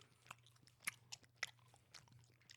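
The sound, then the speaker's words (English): Gum chewing right at a microphone with wet smacks and clicks arriving in an irregular rhythm, fairly quiet overall, over a steady low hum and no talking. “I'm trying step away from the mic when you're chewing, you loud ass motherfucker.”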